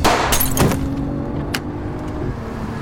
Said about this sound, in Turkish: Önce frene basarak arabayı durdurdu. Sonra gaza var gücüyle yüklenerek hızlanmaya çalıştı.